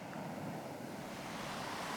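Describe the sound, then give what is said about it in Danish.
Gentle waves wash steadily against a stony beach with seaweed on a mild evening of about 15 degrees, a soft continuous rush of water with only a faint breath of wind and no voices. “bare kun en svag vind gør lyder og mærke på vandet.”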